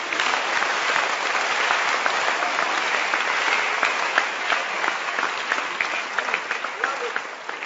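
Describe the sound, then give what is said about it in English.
A crowd applauding steadily, dense overlapping claps forming a continuous bright wash with a few sharper individual claps standing out toward the end, fairly loud throughout. “If you are clapping, you can clap. I'm not stopping you from clapping.”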